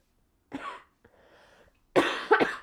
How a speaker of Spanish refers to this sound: Y hace ratito estaba yo queriéndome pues, hacer mensa en redes sociales porque me siento mal, pero tampoco me puedo dormir por la tos.